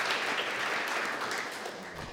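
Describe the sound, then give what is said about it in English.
Sustained audience applause at an evening event, a dense wash of many hands clapping at steady volume throughout, with no voices rising above it. “So can you clap for the audience for the questions?”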